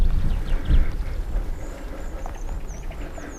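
A horse standing by a path through tall gorse shifts and shuffles, with soft low thuds and rustling, while small birds chirp faintly in the background outdoors.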